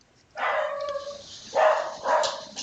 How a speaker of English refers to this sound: It's my dog barking in the background.